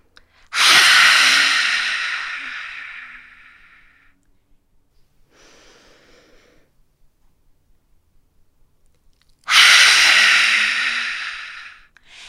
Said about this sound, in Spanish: No se olviden de abrir la boca y abrir los ojos bien grandotes. Lo hacemos otra vez con mucha fuerza, tratando de largar todo aquello que necesitamos largar. Inhalamos. Exhalamos.